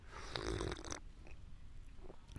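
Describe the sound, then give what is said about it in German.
A single long, airy slurp of tea lasting about a second, loud and hissing with a gurgling edge, followed by quiet and a faint short sound near the end. No one speaks. “Geil, wie ich so den Tee schlürf, oder?”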